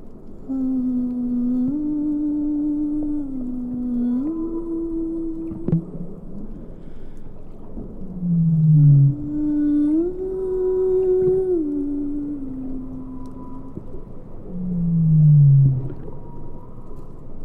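Whale song recorded underwater: long, mid-low tonal moans that step up and down in pitch, broken by short downward-sliding calls, over a steady low rumble with no voices.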